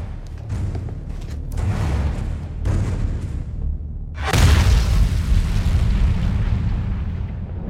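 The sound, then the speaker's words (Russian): Low rumbling builds for a few seconds, then a single loud bomb explosion bursts, its deep roar and crackling debris noise rolling on and slowly fading. “Бомба. Там бомба.”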